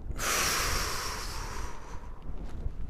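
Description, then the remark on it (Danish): A single long breath rushes in sharply through the nose, loud and hissy, then fades into quieter airy breathing out through the mouth during a breathing exercise. No one speaks. “Vi trækker vejret med næsen, og puster ud gennem munden.”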